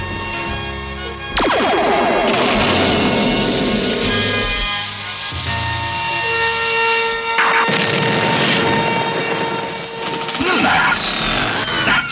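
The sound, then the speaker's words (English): Loud, blaring alarm tones wail steadily over the low rumbling engine roar of Horde Prime's spaceship, broken by sudden crashing bursts as Skeletor hits the engines and the ship goes down, continuing for about twelve seconds. “Skeletors hit my engines!”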